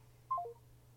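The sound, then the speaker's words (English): A quick run of three electronic tones from a Boost Mobile phone as a call hangs up, stepping downward in pitch, lasting about a quarter second, clear over a faint steady low hum, with no voices. “Oh, this nigga fucking phone hung up ass. Oh, Boost Mobile having ass. Oh, still having the chirp on his phone having ass”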